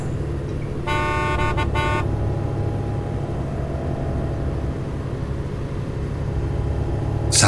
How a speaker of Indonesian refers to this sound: Tiba-tiba terdengar suara klakson mobil. Iya. Mobil minibus di belakangku itu mengklaksonku. Terus-menerus.